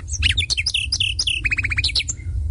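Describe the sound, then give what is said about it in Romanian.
A common nightingale sings in a rapid, varied burst of sharp chirps and whistles, then a quick run of about six repeated notes, over a low steady rumble. “Și privighetoarea roșcată, vorbăreața familiei.”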